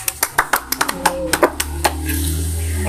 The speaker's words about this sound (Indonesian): Iya, yeah, tepuk tangan dulu dong.